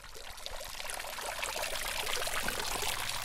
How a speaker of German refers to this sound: Vor dem kleinen Rathaus schräg gegenüber der Kirche, wo der Springbrunnen plätschert